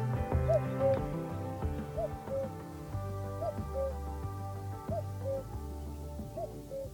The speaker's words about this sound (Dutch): Koekoek. Over de koekoek. Die ga ik eens even laten horen.